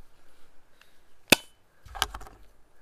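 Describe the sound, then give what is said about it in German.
A sharp metallic pop as the cap is levered off a bottle of Belgian non-alcoholic (0.0) amber beer, followed moments later by a brief rustling clatter and a soft hiss, with no one speaking. “Mit dem Belgischen, okay, dann mach ich das mal auf.”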